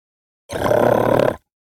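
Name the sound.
dog growling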